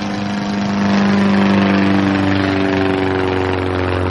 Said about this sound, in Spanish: Javi se queda afuera jugueteando con un mechero y contemplando una avioneta que cruza el cielo.